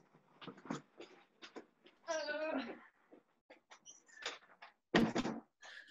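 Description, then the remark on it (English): A door is pushed shut with a short, solid thud near the end, after a creaking swing; muffled voices and shuffling movement fill the moments before. “No, I just have to close my door because, yeah, my parents are um, shouting at each other because they're deaf.”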